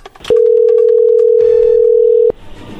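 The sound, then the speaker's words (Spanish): A phone line connects with a loud, steady single-pitched tone held for about two seconds, then cutting off abruptly, with faint background noise before and after. “A ver, ya entró ahí la llamada, no haga ruido.”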